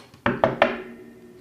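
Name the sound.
knocking on a door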